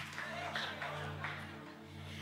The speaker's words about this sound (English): the male leaders here decided that since it's mother's day they would take the day off and have me work so i think we just need to you know give the guys a round of applause for what they actually really do.